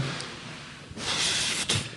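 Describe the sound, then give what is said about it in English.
A burst of dry, crackly rustling, added as a sound effect, swells up about halfway through and carries on steadily for nearly a second, moderately loud, with no voices over it. “Then, that's too much of a rustle. That's a big rustle.”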